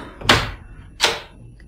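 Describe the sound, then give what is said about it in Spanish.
Two firm knocks on a guest's door, spaced a little under a second apart, sharp, with quiet room tone in between and no voices; no answer comes. “Subió otra vez y llamó a la puerta del huésped, sin obtener respuesta.”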